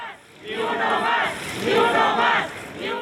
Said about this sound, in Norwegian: Ikke en til, ikke en til. Det ropte journalister da de deltok i en protestmarsj mot de mange drapene på kollegaer i landet. Ropene er fra torsdag 5. mai.